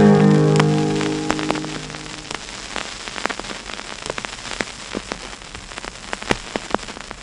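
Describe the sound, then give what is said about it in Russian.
Surface crackle from an old vinyl record playing on air: a soft, steady hiss dotted with irregular sharp clicks and pops, with the tail of faint music fading out during the first couple of seconds. “Друзья, не удивляйтесь, что такой шелест в эфире. Это обычная процедура, когда играет винил, да, особенно когда пластиночка а, старенькая, да, вот, поэтому э, есть шероховатости.”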